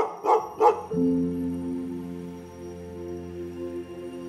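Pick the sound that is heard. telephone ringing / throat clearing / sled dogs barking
sled dogs barking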